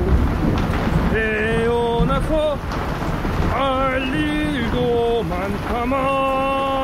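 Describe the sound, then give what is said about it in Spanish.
A stormy sea at night roars steadily throughout around a tossing boat, with lightning, wind and crashing giant waves forming a dense, constant wash, while drawn-out melodic tones rise and fall above the din. “De vez en cuando un relámpago lo iluminaba todo y nos descubríamos rodeados de olas gigantescas.”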